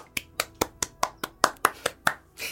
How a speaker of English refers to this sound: Applause.